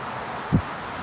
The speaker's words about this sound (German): Ja, wie krass kann der Wind wehen? Hä, wie krank ist das gerade bitte? Also es weht schon extrem.